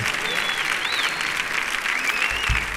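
Loud, sustained audience applause, a dense steady wash of many hands clapping with a few faint whistles riding over it throughout.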